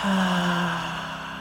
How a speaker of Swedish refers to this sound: Alla tankar, känslor, förnimmelser som stör dig tre gånger till. Andas ut djupt, ljudligt.